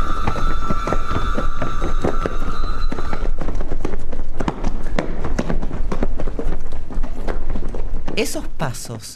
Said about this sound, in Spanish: corriendo por una calle de Bolivia, porque son sus pasos, es él, te estremecen